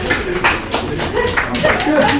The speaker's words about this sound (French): qui commencent à applaudir le retour du grand Lancelot.